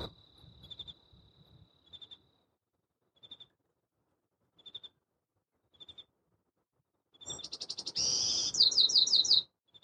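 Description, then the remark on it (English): At dawn in chaparral, regular cricket chirps pulse through near-silence, then the first bird of the day bursts into a rapid, bright, warbling song near the end, loud, with fast repeated trills. “There it is. The first song of the day.”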